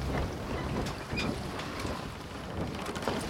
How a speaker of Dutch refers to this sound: Je hoort vaak een beetje ruisen. Zoals je ruisen van de wind kunt horen, hoor je ook een beetje, klotsen wil ik het niet noemen, je hoort die zee bewegen. Maar misschien is het je boot wel.